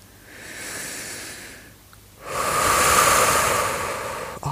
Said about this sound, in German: Beginne einfach zu atmen